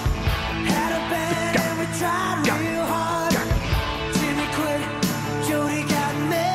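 A loud, steady 1980s rock song plays, with sharp snare drum hits landing in a regular beat over dense, sustained guitar chords.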